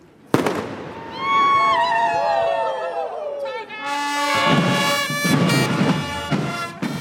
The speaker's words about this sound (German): Und damit wirklich alle wach sind und den ersten Einsatz ja nicht verpassen, werden noch ein paar Böller gezündet.